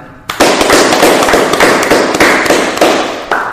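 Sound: clapping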